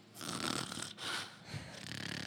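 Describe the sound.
A voice imitates loud snoring: a few rough, rasping breaths in quick succession, fairly strong, with no speech.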